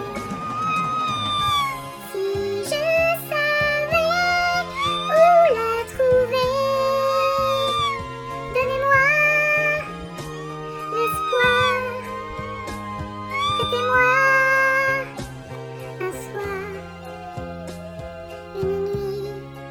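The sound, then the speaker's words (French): Cat meows strung into a sung melody over a steady musical backing in a karaoke duet, the mewing notes rising and falling continuously for about twenty seconds, loud, with no talking. “On essaye aussi d'aider dans la mesure du possible. Les chats,”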